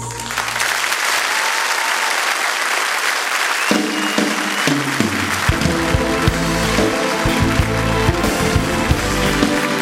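Sustained audience applause, a dense wash of many hands clapping loudly throughout, with a low musical tone entering partway through beneath the clapping.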